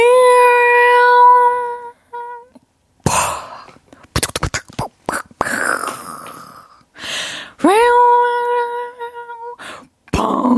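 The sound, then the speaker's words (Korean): A person makes a mouth sound effect of fireworks for others to guess: a long whistled, rising tone, then a string of sharp, breathy bangs, followed by a second rising whistle and one more pop. “아, 복죽놀이.”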